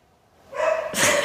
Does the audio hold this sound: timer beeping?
no